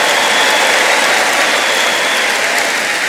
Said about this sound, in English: Give the Lord a big, big clap of praise.